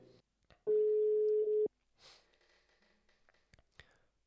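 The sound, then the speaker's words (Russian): A single loud, steady telephone ringback tone lasting about a second, followed by faint rustling and breathy line noise as the call seems about to connect. “о встрече э, в таком вот телефонном режиме.”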